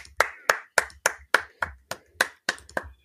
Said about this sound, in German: Aber erstmal heißen wir ihn herzlich willkommen mit einem tobenden Applaus